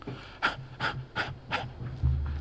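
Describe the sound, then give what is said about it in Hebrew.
A person demonstrates the short, impatient breathing of people dissatisfied with their place in life: four quick, sharp breaths in a steady, hurried rhythm, followed by a low rumble at the end. “אנשים שלא מרוצים מהמקום שלהם בחיים, הם נושמים בקוצר רוח.”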